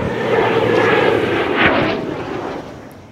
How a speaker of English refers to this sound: A CF 18 from the demonstration team flying over Nanaimo, continuing with passes over Tofino and Victoria.